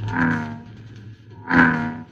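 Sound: frog croaking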